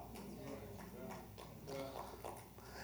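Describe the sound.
Scattered clapping from an audience, a steady patter of many hands at moderate volume, mixed with a voice speaking over it throughout.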